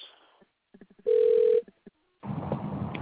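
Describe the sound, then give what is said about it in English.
An outgoing phone call placed live on air on the Rodney Perry Live show, over a thin line: a few soft clicks, then one steady, low-pitched ringback tone lasting about half a second, followed by a rush of loud, crackly line noise. “I'm going to call him.”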